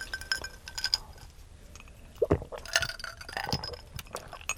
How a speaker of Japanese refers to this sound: 今週も私の地元熊本の高橋酒造の米焼酎、はい、白竹白で乾杯しましょう。今週もお願いします。お願いします。乾杯。